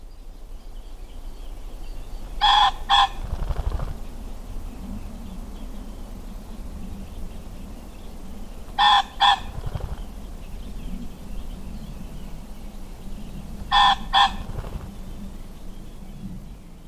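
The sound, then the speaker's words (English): A pheasant rooster crows three times, each a harsh, loud two-note squawk, spaced several seconds apart over a low outdoor rumble of wind. “Pheasants often call in response to loud noises or vibration, and there are stories of them calling before earthquake strikes, and even birds in Kent reacting to the sound of gunfire across the English Channel during the Second World War.”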